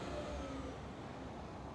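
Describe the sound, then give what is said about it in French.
A steady low engine rumble from night buses running, with faint whining tones early on and no voices. “mais le silence règne de nouveau en maître, à peine troublé par le bruit de moteur des bus de nuit.”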